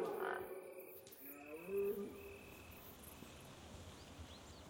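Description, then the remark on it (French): A gentle wind rustles through beech leaves in a soft, steady hiss, with faint, muted bird calls and the quiet buzz of flies and other insects drifting in and out. “on a, un léger vent là dans les hêtres, un petit frémissement, euh, mais c'est très joli quand c'est tout léger comme ça.”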